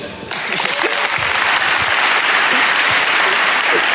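An audience breaks into steady applause after a brief quiet moment, a dense, even wash of many hands clapping that stays loud and constant throughout.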